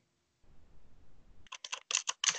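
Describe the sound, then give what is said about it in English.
Loud, rapid keystrokes clatter on a computer keyboard, a quick burst of sharp clicks after a low rumbling lead-in, with no talking. “God, you destroy that keyboard.”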